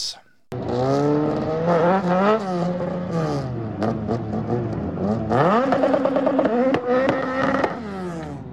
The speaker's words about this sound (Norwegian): nå har vi akkurat uh, spilt av lyden av du som varmer dekk i, i denne Porscha